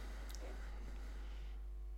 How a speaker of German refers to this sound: ich mache das Bier mal auf. Ja, mach das mal auf.